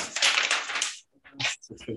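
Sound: paper being rustled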